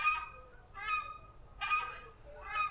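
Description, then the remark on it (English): A crested screamer (Chauna torquata) calls loudly in four repeated, honking, goose-like bursts with a brassy, harmonic tone, set against a low background rumble and no voices. “The crested screamer, as you can hear in the background, possibly,”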